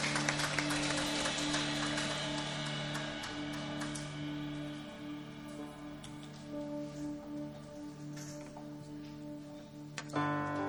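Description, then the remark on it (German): An audience at a church audience gathering claps steadily for the band for about ten seconds, a dense wash of many hands over a low steady hum, fading slightly before a brief final burst. “Ähm, und ein Applaus nochmal an die Band.”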